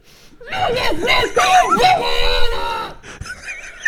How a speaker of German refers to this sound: Ich habe in eine Tasse geschrien.